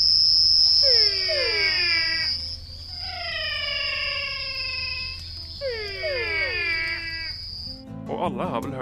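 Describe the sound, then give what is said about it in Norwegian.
Three drawn-out, falling frog mating calls, made using air sacs under the throat, repeat in loud bouts over a steady, high-pitched whine, followed by a brief burst of different noise at the very end. “Frosker bruker luftsekker under harsen for å logge noen underlige paringslyder.”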